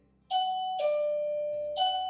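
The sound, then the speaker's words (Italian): A doorbell rings with a clear electronic chime: three sustained tones going high, low, then high again, fairly loud with no voices over it. “Ecco qua, ci hanno bussato eh, ancora”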